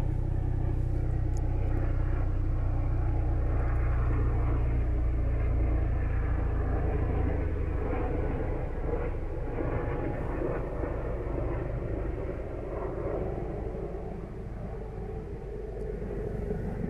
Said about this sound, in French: Nous venons d'entendre un avion passer.